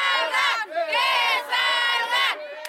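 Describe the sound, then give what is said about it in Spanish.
A large crowd of factory workers protesting in Ciudad Juárez, Mexico, by the US border, chants loudly in unison, voices rising in rhythmic shouted phrases with brief pauses between them, continuous. “Eh, es una protesta de trabajadores y trabajadoras de fábricas de Estados Unidos que producen de este lado de la frontera”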